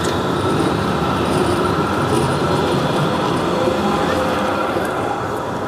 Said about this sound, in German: Die Straßenbahn mussten wir kurz durchlassen.